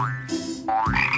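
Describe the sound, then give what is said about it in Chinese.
A frog croaks in a few rubbery, wobbling calls with rising and falling pitch, fairly loud and heard alone without any talking. “跟着那只青蛙。”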